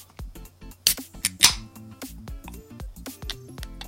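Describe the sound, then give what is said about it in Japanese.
A can of Suntory Premium Malt's beer is cracked open: a few small metallic clicks, then a sharp, brief pssht of escaping gas, with quiet background music underneath. “缶ビールのプシュって音が綺麗にとれただけの話”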